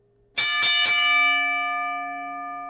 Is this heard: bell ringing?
yes